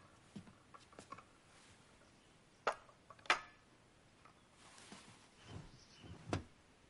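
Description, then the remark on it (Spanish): The glass of a sash window slides upward in a bedroom with a few sharp wooden knocks and rattles between soft scraping, fairly quiet, with no voices. “Coloca la bandeja en la mesilla, levanta el cristal de la ventana de guillotina y se sienta junto a la cama.”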